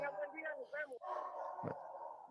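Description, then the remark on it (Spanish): A dog named Vito barks in the background, a run of short, high yelping barks in quick succession, not very loud, followed by a brief noisy burst. “No sé si se escuche Vito ladrando en el fondo, pero creo que está celebrando la victoria de Cowboys.”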